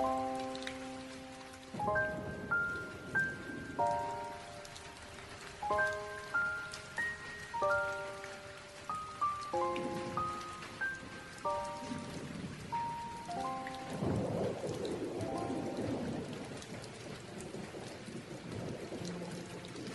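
Steady rain patters and hisses throughout, partly under soft sustained musical chords for the first two-thirds, then continues alone as a dense, even wash of falling water.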